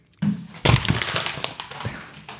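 Paper, an old biology exam, rustling and crinkling for a couple of seconds, a dense, crackly burst of handling noise that starts abruptly, then tapers off as the sheets are shuffled and put away.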